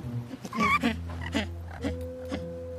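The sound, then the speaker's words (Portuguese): A Magellanic penguin gives loud braying calls, a series of harsh, donkey-like honks and wavering wails in quick succession over a low, steady background drone. “Pinguim-de-Magalhães”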